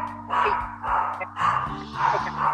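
A small dog named Octavito barks about four times in steady succession, moderately loud, with a low hum running underneath.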